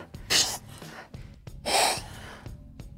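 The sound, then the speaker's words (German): Two loud, breathy sobbing gasps about a second apart, with quieter shaky breathing between them, as someone lying collapsed cries pitifully on their own. “Ich weine einfach total jämmerlich. Weil Man hört es.”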